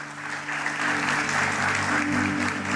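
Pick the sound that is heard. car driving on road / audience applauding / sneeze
audience applauding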